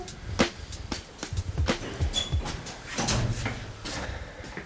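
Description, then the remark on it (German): A door off the stairwell of a multi-storey building is pushed open, with a few sharp knocks and clicks from the handle and frame, followed by shuffling and rustling as people step inside. No one speaks. “Achso, die Tür ist offen. Jetzt, easy. Lass mal herein in die gute Stube.”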